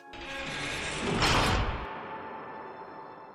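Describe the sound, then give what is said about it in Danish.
A man slams a door shut behind him in a heavy, rushing swell of noise that peaks midway through, with a deep low rumble, then trails off into a steady hum. No one speaks. “Han smækker døren bag sig.”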